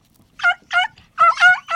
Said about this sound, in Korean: 네. 오호! 닭의 울음소리. 이 소리는 닭의 울음소리입니다.